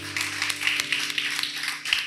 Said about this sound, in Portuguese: Aplauda o Senhor.